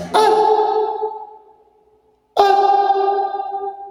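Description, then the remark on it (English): Two sharp bangs in a basement reverb chamber, each followed by a long ringing decay that hangs for about two seconds before fading out. “Well, reverb chambers are used for all different kinds of things in, in acoustical measurements”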